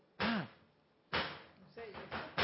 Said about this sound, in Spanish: Es curioso porque es como una música que suena de fondo. ¿Qué está pasando? Están martillando, no, están pegando, poniéndole el timbre a cada documento que ponen.